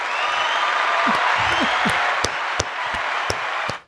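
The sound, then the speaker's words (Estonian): A short burst of applause from a small group, steady clapping for a few seconds with a few louder claps standing out, then cutting off abruptly. Faint voices may murmur underneath. “väike aplaus ka ühesõnaga”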